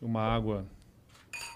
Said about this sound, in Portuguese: Vamos fazer um brinde aqui, ó. Vamos.